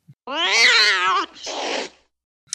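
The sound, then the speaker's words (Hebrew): A single drawn-out meow from a kitten being vanished with a Vanishing Spell, loud, its pitch rising then falling, followed by a short breathy, hissing tail before silence. “וואי וואי וזה באסה כאילו מה חתול כזה חמוד נעלם באסה לא הוא עדיין שם פשוט לא נראה.”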